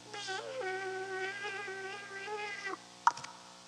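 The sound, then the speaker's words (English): A voice imitates a mosquito's whine with a steady, nasal buzz lasting a few seconds and wavering slightly in pitch, then stops, followed by a brief sharp click. “A mosquito bit me a mosquito.”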